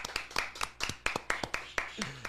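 A short round of applause welcoming a guest photographer: a small group clapping in quick, slightly uneven bursts, sharp and moderately loud, with a brief vocal sound slipping in near the end.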